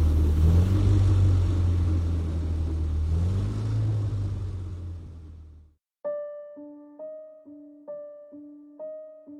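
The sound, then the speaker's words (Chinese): A red Audi Q7 engine roars loudly for about six seconds at night as the car speeds past the Beijing Hotel in Beijing, its pitch surging up and down, then cuts off abruptly, followed by a repeating pattern of short, decaying chime-like tones. “夜色中，一辆红色的奥迪 Q7 呼啸着从北京饭店疾驰而过。”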